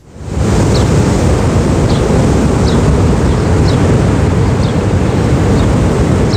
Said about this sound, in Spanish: Estamos en el este de la isla de Mallorca. Las olas ya rompen contra la arena, que a primera hora de la mañana esta arena está solitaria.